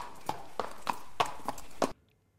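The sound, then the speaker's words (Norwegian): A horse walking to its stable gives six evenly spaced hoof strikes, clip-clopping on a hard surface at a steady walking pace, sharp, over a faint background hum before the sound cuts off abruptly. “På vei til senga, hesten? På vei til stallen.”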